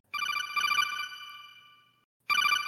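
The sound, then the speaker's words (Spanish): A loud electronic call ringtone from the codec radio in the Metal Gear video games: a bright, buzzing trill that fades away over about two seconds, then starts ringing again abruptly. No voices. “Te han descubierto. Ahí está. Codec.”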